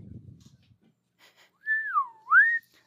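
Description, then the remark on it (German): A clean human whistle glides downward and then swoops back up in one smooth phrase, preceded by a brief low murmur of voices. “Also, das, das war ein übel krank. cleanes Pfeifen, wow.”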